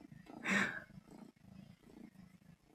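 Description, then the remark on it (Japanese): A small, light young cat purrs in a steady, rhythmic low rumble that pulses with each breath, briefly interrupted near the start by a louder, breathy rush of sound. “ぐるぐる猫が言っております。”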